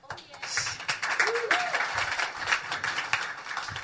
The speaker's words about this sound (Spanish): un aplauso a nuestro Dios.